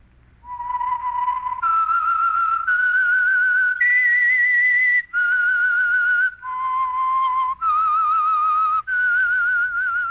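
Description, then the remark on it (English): A clear whistled melody of about a dozen sustained notes that rise and fall in steps, played alone with no talking and ending after ten seconds: the whistled signal theme of the Signal Oil radio program The Whistler. “That whistle is your signal for the Signal Oil program, The Whistler.”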